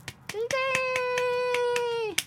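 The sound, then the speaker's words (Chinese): About nine quick, evenly spaced hand claps, roughly four a second, mimicking a red clapping and singing figure from Japan sold as a capsule toy, with a steady, held mid-pitched tone running beneath most of them. “然后嘞， 就他拍手这样，”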